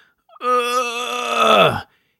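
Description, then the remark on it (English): A single strained, drawn-out groan from a voice imitating the sound a patient with a primary Valsalva headache makes, mimicking hard bearing-down effort, held steady and tense for over a second before sagging and cutting off. It is fairly loud, with no other sounds. “So, for example, if it's a primary cough headache, if it's a primary Valsalva headache,”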